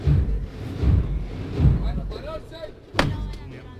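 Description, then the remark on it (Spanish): One sharp, ringing knock of the hammer on the neo-baroque procession float of Jesús de las Penas cuts through a low outdoor rumble and murmuring crowd, followed by the heavy float being lowered slowly a few metres from the door. “El martillo y se arría el paso poquito a poco, a escasos metros de la puerta.”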